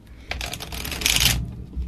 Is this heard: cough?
no